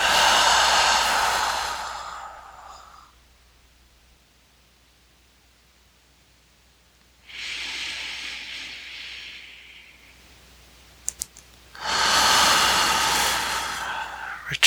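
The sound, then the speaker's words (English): Three long, deep breaths taken during a breathing exercise, each a broad airy rush lasting a few seconds, separated by stretches of near silence. No talking, just slow, deliberate breathing. “returning to normal breathing.”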